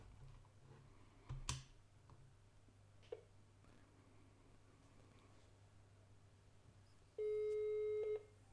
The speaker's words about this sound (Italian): Io adesso provo a chiamarlo, sentite cosa succede. Io lo chiamo.